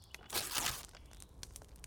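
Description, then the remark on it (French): A single quick rip of a paper sheet as an office employee tears up a written request, a bright papery burst of about half a second, followed by faint crinkly rustles and small ticks in an otherwise quiet setting. “Il y a depuis trois jours une loi qui permet le passage, et il déchire notre feuille.”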